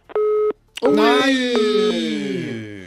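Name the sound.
telephone busy tone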